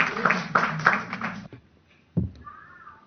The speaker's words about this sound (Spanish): Y luego hacemos este de nuevo para que salgan nuevamente los aplausos. Aplausos para los, los, los que están a punto de morir.